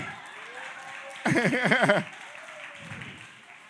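A short, loud burst of applause lasting under a second, mixed with a rising and falling cheering voice, then dropping back to a steady low background hum.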